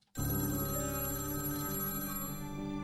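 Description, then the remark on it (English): An old-fashioned telephone bell rings loudly and continuously, a bright metallic jangle that starts abruptly with no voices: a phone call to MGM's Howard Strickling in the early hours of a fall day in 1933. “Howard Strickling received a phone call in the early hours of a fall day in 1933.”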